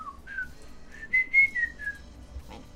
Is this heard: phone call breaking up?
no